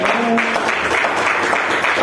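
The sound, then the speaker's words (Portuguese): An audience at a church service applauds the Lord after a prayer: a dense, continuous wash of applause at strong volume with no single claps standing out, and a faint murmur of voices underneath. “Pode aplaudir o Senhor.”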